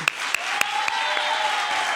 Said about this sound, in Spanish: Por eso, nuestro público lunero va a recibir con un pedazo de aplauso a la altura de estas pedazos de actrices como son Carolina Yuste y Rosy Rodríguez.